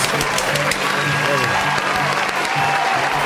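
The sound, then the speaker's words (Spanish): A crowd applauds a musician steadily for the full few seconds, a dense, loud crackle of many hands clapping at once, with faint voices mixed in beneath. “Sí, en los bastardos aplaudimos.”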